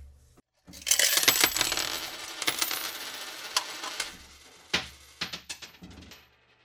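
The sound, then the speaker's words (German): An Italian 1-euro coin hits a hard floor with a bright metallic clatter, then bounces and rattles in quickening, fading taps before settling. Clear, with no voices. “Warte mal, dir ist gerade eine italienische 1-Euro-Münze auf den Boden gefallen.”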